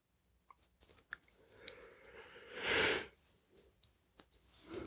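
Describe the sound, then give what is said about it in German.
A breathy yawn swells up and fades in the middle, surrounded by soft mouth clicks, sniffs and faint rustling as someone shifts their whole body around to get more comfortable. No one speaks. “Ja, jetzt kommt ein Gähnen und ich ruckel so ein bisschen herum mit dem gesamten Körper und mach's mir ein bisschen bequemer.”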